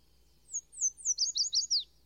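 A bright, high-pitched yellow warbler song: a quick run of about seven thin, sharp, sweet notes rising then tumbling, clear against a faint low hum, with no voices.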